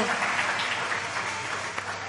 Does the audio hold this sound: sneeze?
no